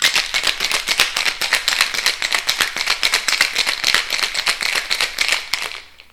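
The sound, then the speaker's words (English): Ice rattles hard inside a cocktail shaker holding lime juice, lemon juice and simple syrup, shaken to mix a cocktail in a fast, steady rhythm of sharp clattering hits, loud, continuing for several seconds before abruptly stopping. “And it's shaking time.”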